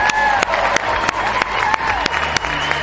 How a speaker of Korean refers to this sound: 6734님께도 일단 큰 박수 보내드립니다.